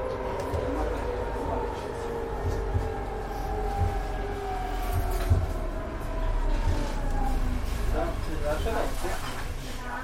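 A tram rumbles steadily along wet, glistening rails on Obernstraße in Bremen on a Sunday night, with a low rolling drone and faint metallic whining tones that rise and slide over ten seconds, traffic-like hiss underneath.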